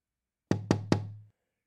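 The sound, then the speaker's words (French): Three firm knocks on a wooden door in quick, even succession, clear with a short resonant decay after the last one, against silence; Little Red Riding Hood knocking at the grandmother's door. “Il attendait le petit chaperon rouge qui, quelque temps après, tapa à la porte.”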